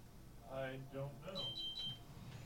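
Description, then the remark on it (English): A high-pitched electronic alarm beeps three times in quick succession, fairly faint in the background, while people talk over it. “somebody's alarm or are we being bombed?”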